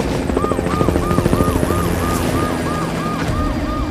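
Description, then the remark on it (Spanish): A helicopter's rapid rotor chop thumps overhead as it flies over the area outside a warehouse, fading into a steady low drone, while a police siren wails in fast repeating whoops throughout. No one speaks. “Afuera de ese almacén se encuentran seis patrullas, 15 agentes policíacos y un helicóptero sobrevolando el área, resguardando que ninguno de los malhechores escape.”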